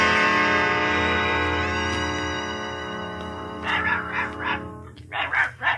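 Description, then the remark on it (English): A sustained musical tone fades out, then Dorothy's dog barks several times in quick, uneven bursts, fairly loud. “Look, it's Dorothy's dog.”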